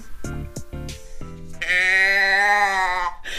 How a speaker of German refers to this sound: Wir sind heute in einem Ortsteil von Homberg gelandet. Und hier steht ein Schaf neben mir. Ich habe ein Schafgeräusche-Ding äh, neben mir stehen.